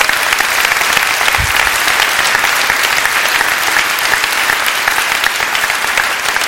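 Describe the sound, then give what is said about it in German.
An audience claps steadily and loudly for several seconds for a group of people, a dense, even wash of many hands with no pauses and no voices standing out. “Lass uns mal einen Applaus geben für diese Menschen.”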